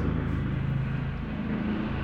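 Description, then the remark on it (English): A steady, rumbling engine drone with a low droning hum fills the whole moment, a helicopter flying overhead, with no voices present. “I don't know if you can hear this, but there's a helicopter flying above me.”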